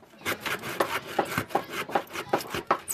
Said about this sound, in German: Ich säge die Bretter ab, damit es da gerade ist. Ich bin auf dem Dach und neben mir geht ein Meter runter.